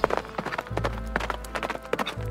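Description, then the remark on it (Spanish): Rapid hoofbeats of a character running away gallop in a quick, uneven rhythm of sharp clip-clop strikes at a fairly steady, moderate volume, with no voices. “e Ichi, totalmente avergonzado, sale corriendo lejos de ahí.”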